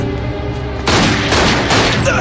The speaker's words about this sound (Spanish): El otro sale huyendo, pero Derek le dispara.